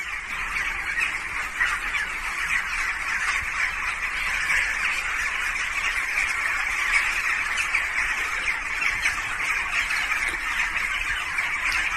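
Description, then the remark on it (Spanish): A dense, unbroken chorus of many birds squawking and honking together, loud and agitated, sustained at an even level with no voices; the birds fly agitatedly in circles at night, filmed from a building window hours before the earthquake that struck Turkey and Syria. “El vídeo está grabado desde la ventana de un edificio, es de noche, y en las imágenes se aprecian pájaros volando en círculos agitadamente.”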